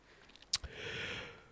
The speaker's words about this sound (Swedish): Och fy fan vad jag gäspar! Bara för att jag ligger ner. Det här är ju världens sämsta jävla position.